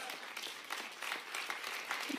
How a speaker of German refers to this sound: ein Applaus